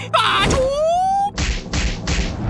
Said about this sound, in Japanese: 悪しき恐竜の手のひらに連続パンチをするロキ